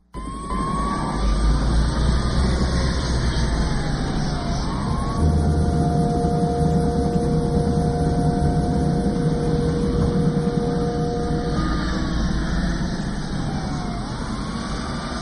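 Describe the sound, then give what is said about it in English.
Wailing police sirens sweep up and down over a loud, steady rumble of engines and road noise, with sustained tones layered in midway, from a police car chase in a Canadian Midas tire commercial. No one speaks. “It's actually a Canadian Midas tire commercial.”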